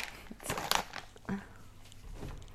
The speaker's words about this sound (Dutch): En dan hoor je gewoon de kaasverpakking en de kip kipverpakking. En niks anders.